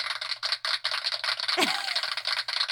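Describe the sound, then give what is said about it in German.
A drum roll sound effect played from a sound machine: a rapid, steady rattle of snare hits rolling continuously for a few seconds, with a brief sweeping accent partway through. No voices are heard. “Nee, das war der Trommelwirbel.”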